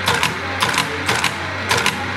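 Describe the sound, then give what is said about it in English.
A steady electric motor hum runs throughout, with four bursts of mechanical typing clatter at roughly even intervals as someone types on the keyboard of an Enigma cipher machine combined with a teletype, fairly loud. No one speaks. “You can hear the humming noise of the motor. And if I type on the keyboard,”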